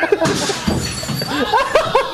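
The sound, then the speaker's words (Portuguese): A glass pane in the broadcast booth at a Farroupilha football match shatters after a ball is cleared into it, with a harsh, bright crash and scattered tinkling fragments, followed by startled voices and a bit of laughter. “E quebrou um vidro aqui na cabine, rapaz.”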